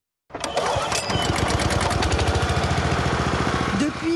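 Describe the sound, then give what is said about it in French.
Four lawn mowers cutting 8,500 square metres of grass at the Stade de France at 8:30 in the morning roar with a steady, rattling engine drone that pulses rapidly and holds constant after a sudden start, with a faint voice briefly surfacing near the end. “8h30 ce matin, 4 tondeuses taille et AR 8500 mètres carrés de pelouse.”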